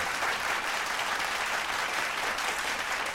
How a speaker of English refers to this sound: Uh, let's do two claps. Let's clap just the general clap. That's that's good.